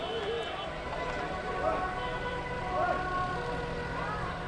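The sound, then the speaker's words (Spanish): An ambulance siren wails as the ambulance speeds along the Granada road past the Viña neighbourhood, avoiding streets closed by landslides while other cars pull aside; its rising and falling tones are partly buried under dense, steady noise while a voice talks over it. “La ambulancia avanza veloz por la carretera de Granada.”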